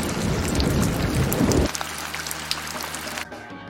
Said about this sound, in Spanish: Está lloviendo muchísimo sí, mano.